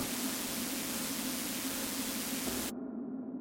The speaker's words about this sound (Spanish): Llamé y pronto atendieron, pero fuera de la estática que se escuchaba, nadie respondió.